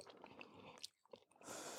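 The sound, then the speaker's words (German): Wet open-mouthed chewing with repeated lip smacks and small crunchy bites, a rapid irregular stream of moist clicks and squishes with no talking. “So, ähm, das war wir schmatzen euch jetzt was vor.”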